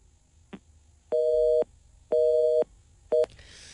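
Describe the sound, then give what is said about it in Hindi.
A phone busy tone after a call drops: three steady, loud two-pitch beeps, the first two long and the last cut short, with a brief click before them and hiss at the end. “अच्छा देखिए ये मैंने बिल्कुल नहीं काटा इसको ये मत समझिएगा कि ये मैंने जेनुअनली मैं कसम खा के कह सकता हूँ मैंने आपकी कॉल को नहीं काटा”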